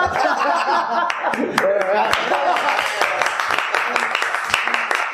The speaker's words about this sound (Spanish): Pues nada, un aplauso fuertísimo